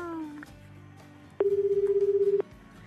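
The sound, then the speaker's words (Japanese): A phone line rings once as a call is placed to a listener: a steady, warbling ringback tone lasting about a second, fairly loud and heard alone, after a brief lower tone at the start. “ちょっと電話してみましょうね。”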